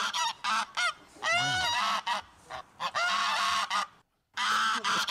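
geese honking

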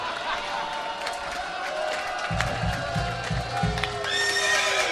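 horse neighing sound effect

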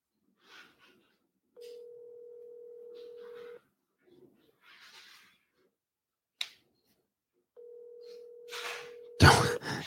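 phone call ringing tone

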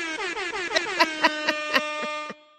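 air horn sound effect

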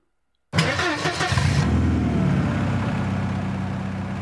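car engine starting

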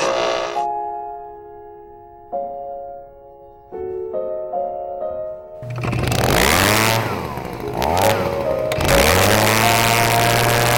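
leaf blower engine running

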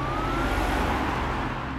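police car siren

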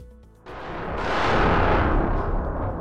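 heavy gunfire

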